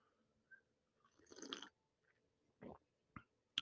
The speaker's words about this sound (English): I have this amazing coffee right now that I'm going to take a sip of. Excuse me very much. I'm going to take a sip right now.